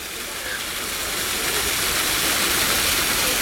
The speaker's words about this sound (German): Und was ihr hört, ist wieder ein Wasserfall. Das zieht sich so durch, wenn ich euch mit an die frische Luft nehme, dass man irgendwo einen Wasserfall plätschern hört.